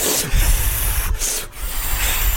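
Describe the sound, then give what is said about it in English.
Loud, continuous squeaky rubbing of a rubber balloon being twisted into an animal shape, with a couple of brief breaks in the friction, and no talking. “a little ghost balloon animal. Yeah, maybe a ghost. All right, well, I'm gonna do one right away.”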